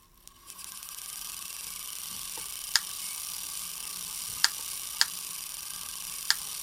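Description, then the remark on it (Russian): An electrostatic influence machine runs in a room, making small real lightning sparks: a steady high hiss and whir, broken by four sharp spark cracks at irregular intervals. No one speaks. “Сейчас вы слышите, как работает электрофорная машина.”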